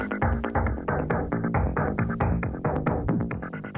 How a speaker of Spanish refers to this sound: Cómo me gusta esta sintonía, de verdad, ¿eh? Me encanta, ¿eh?